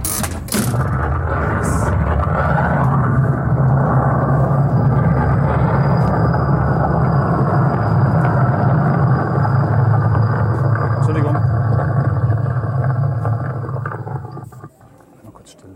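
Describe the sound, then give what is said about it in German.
An explosion sound effect: a loud, deep rumbling roar that starts abruptly and holds steady for about fourteen seconds before fading away at the end. “Ich mache nochmal eine Explosion, ne?”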